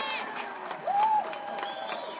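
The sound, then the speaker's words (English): A crowd cheers and claps in a steady, dense wash of noise, with one high whoop rising and falling about halfway through. No clear speech stands out. “Let me Don her hand clap.”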